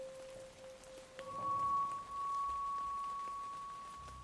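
Steady rain falls in a continuous soft hiss throughout, while a thin, sustained tone hums above it and steps up to a higher pitch partway through.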